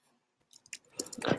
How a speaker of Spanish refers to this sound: porque escucho teclado, escucho algo